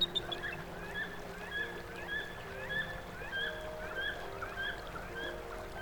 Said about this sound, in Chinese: 耳朵也同样应接不暇。置身于时而平缓、时而湍急的河流之上，两岸止不住地传来老鹰、翠鸟、鸕鶿和猿猴的啼叫。